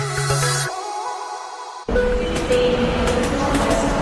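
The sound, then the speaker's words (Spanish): A steady mechanical hum gives way to a loud train, the Balearic Network hypertrain in Metrópolis, rumbling past: broad, roaring noise with a low drone, faint high whines and light clattering that continues to the end. “El hipertren de la Balearic Network, por ahora en Metrópolis, la ciudad musicalmente multicultural.”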